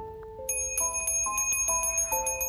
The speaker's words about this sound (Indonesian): Sosok tanpa kepala itu membunyikan lonceng sangat cepat yang mana setiap dentingnya membuat jarum-jarum yang tertanam dalam wajah